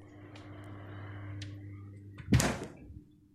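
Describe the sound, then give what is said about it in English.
In a kitchen, a steady low electrical hum gives way to a single dull thud as the refrigerator and freezer doors are pulled open, followed by a brief rustle before the sound settles. “Walk in your kitchen, open the fridge and freezer doors, and stand between them.”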